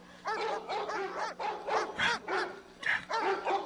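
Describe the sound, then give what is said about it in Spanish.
Several dogs bark continuously in a rapid, overlapping series of sharp yaps and barks, loud, with no pauses throughout. “Y esos malditos perros que no se callan.”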